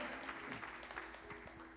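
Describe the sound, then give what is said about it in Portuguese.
An audience at a church worship service applauds the Lord, a dense, steady patter of many hands clapping at once that keeps going throughout, with a low sustained hum underneath. “Aplauda o Senhor, aplauda o Senhor e adore.”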